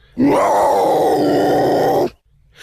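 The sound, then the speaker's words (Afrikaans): A leopard, startled awake while sleeping on a tree branch, gives one loud, rasping growl lasting about two seconds, unbroken, then cuts off abruptly, leaving only a faint low rumble. “Die luiperd skrik wakker en grom hard.”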